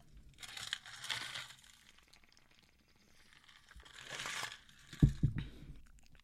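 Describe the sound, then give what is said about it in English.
Ice crackles and crunches in a drink of water as it is drunk, two bursts of crisp crinkling separated by quiet, followed by a couple of low knocks at the end. “y'all know y'all heard the ice crackly.”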